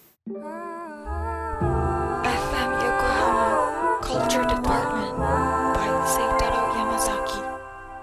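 A band song plays loud and steady, opening with a held melodic line before bass and fuller instrumentation come in, with bright accents layered throughout and no talking over it.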